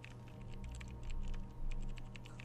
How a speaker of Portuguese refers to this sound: E aqui ele tá digitando números, que na verdade traduz para isso aqui.